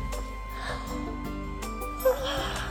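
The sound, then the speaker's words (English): A big, drawn-out yawn voiced for Baby Owl in a read-aloud children's story, breathy and wheezy, that swells near the end with a brief squeaky catch over a steady low background hum. “That was a very big yawn, said Mouse.”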